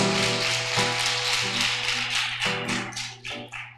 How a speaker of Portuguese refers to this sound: Então dá uma salva de palmas para o Senhor Jesus. Aleluia!